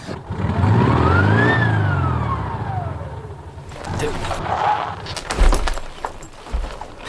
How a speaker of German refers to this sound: Jetzt stehen wir. D der Motor ist verreckt. Oh, der Motor ist was? Ja. Und das mitten in der Wüste.